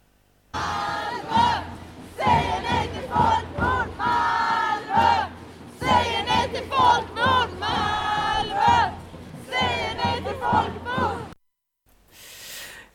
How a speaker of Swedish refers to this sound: Ja, så det var några snuttar av, eh, av den demonstrationen.